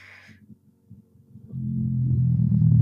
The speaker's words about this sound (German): Oh, warte mal, jetzt kommt hier so ein Motorrad. Oh. So ein Roller. Ich duck mich nur mal kurz.